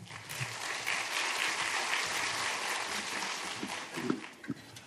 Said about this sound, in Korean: 크게 박수함으로 우리 환영하겠습니다.